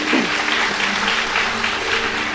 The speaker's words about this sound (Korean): 자리로 돌아가십시오. 박수 주시기 바랍니다.